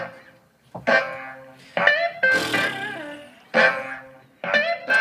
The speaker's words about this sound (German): Toller Sound heute, ne? Das ist das Schönste, was ich je gehört habe. Ist das ein Beat, den du gemacht hast? Das ist unser Jingle, nur abgeändert. Den du gemacht hast?